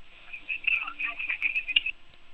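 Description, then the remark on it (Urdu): A tinny, band-limited telephone line carries a caller's garbled, crackly speech for a couple of seconds before the phone call abruptly cuts out, leaving near silence with one faint blip. “اچھا ان کا فون کٹ گیا”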